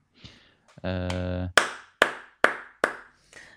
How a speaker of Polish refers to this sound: Nie wiem, czy to było słychać brawa.